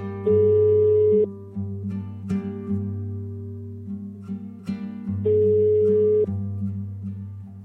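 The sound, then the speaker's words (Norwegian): An outgoing phone call's ringback tone sounds twice, each a steady one-second tone with a few seconds of quiet between, over a low background hum. “Den ene dattera til denne ekspolitimannen har en slags villig til å prate med oss, så vi skal ta en telefon til hun nå.”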